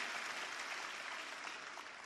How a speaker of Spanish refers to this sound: Si quieres todas esas cosas juntas, hazte un aplauso porque este, esta mañana estás en el lugar correcto para conseguir todas esas cosas.